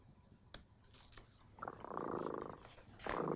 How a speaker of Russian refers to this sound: Слышите, кот Тремота запел свою песенку. Это значит, что пора засыпать.